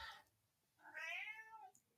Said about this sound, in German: Und mein Kater möchte auch gerade und deine Katze stimmt auf jeden Fall mit zu.